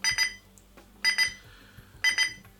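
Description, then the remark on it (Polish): An alarm clock with a smooth hard plastic case rings in repeated bursts, each a quick double beep roughly once a second, bright and electronic, with a faint low hum underneath and no talking. “Tak się od, odzywa alarm.”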